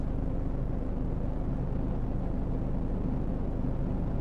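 Steady, muffled low rumble of road noise inside a moving car driving home from work, continuous and even in level throughout, with no talking and no distinct events standing out.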